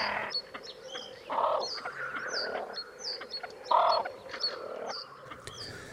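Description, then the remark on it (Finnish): Great crested grebes call loudly across a lake during their courtship display, with harsh croaking, cackling notes at about 1.4 and 3.8 seconds, while small birds chirp continuously in the background. “Silloin silkkiuikku on äänekäs lintu ja kor kor kor kor kääk kääk kääk äänet kaikuvat pitkin järven selkää.”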